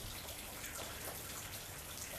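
Steady rain falls in the desert with a constant, even hiss and faint scattered patter of drops, fairly soft and continuous throughout, with no voices.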